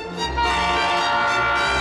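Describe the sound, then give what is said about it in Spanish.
A train sound effect evoking a train station plays on its own: a loud, steady rush of rail noise with a sustained horn-like tone carrying through the whole brief moment, uninterrupted. “Las de los trenes.”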